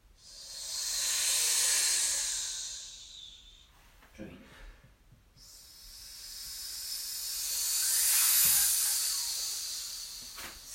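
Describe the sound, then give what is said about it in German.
A voice imitates ocean waves with a breathy "shh" hiss that starts quietly, swells up and fades away (crescendo, decrescendo), twice in a row, the second rise peaking a little louder after a short dip. “Jetzt die Welle, die fängt leise an und wird immer mehr und dann wieder weniger.”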